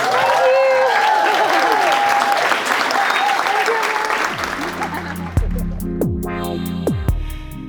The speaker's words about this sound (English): I think give her a massive round of applause.